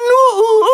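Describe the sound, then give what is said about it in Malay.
A loud human voice mimics an owl hooting, giving a brief run of smooth, tonal hoots that slide slightly in pitch. “Eh, hey, itu bunyi burung hantu lah.”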